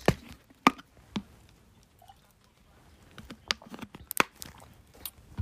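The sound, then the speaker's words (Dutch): Someone drinks water from a bottle: soft clicks and plastic handling taps, brief sips and quiet swallows scattered over a few seconds, with no talking. “Sorry, eventjes water drinken, want dit is ook niks.”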